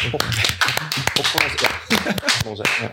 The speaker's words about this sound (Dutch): Klein applaus.